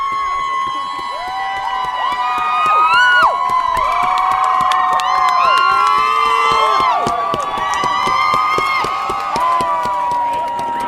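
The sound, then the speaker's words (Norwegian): A large crowd roars and cheers in celebration as the verdict convicting Chauvin on all three counts is announced, many voices shouting and whooping over one another with scattered clapping, staying loud and dense throughout. “Og så kom eh, dommen, og da brøt det ut et sånt kollektivt eh, gledesbrøl i hele denne forsamlingen.”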